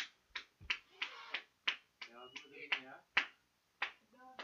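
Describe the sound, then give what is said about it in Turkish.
Sharp hand claps for health workers at 9 o'clock burst out irregularly, about ten in a few seconds, each a crisp slap of sound, while a voice talks in between and over them. “Saat 9'da sağlık çalışanları için alkışlıyoruz.”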